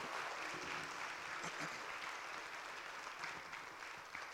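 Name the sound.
audience applause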